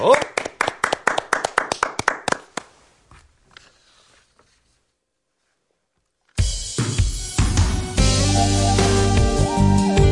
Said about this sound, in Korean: 자, 박수! 보내드리죠.